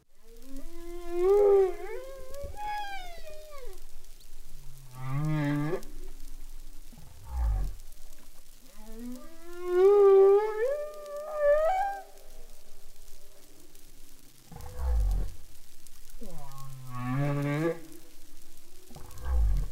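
Humpback-style whale song: long, rising and falling moaning calls with rich harmonics, alternating with deep grunting pulses, repeating in phrases over about twenty seconds with no voices.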